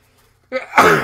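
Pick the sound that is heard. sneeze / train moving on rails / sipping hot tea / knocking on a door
sneeze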